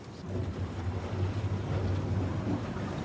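A boat engine, fired up to move the boat out from the shore, rumbles steadily, a low droning hum that holds constant, with faint wind and water noise in the background and no talking.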